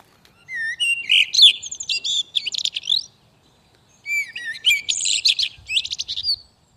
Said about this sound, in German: Okay, da flirtet also eine Amsel. Und das Lustige ist, es kann passieren, wenn man sowas abspielt, dass dann tatsächlich auch Amseln antworten.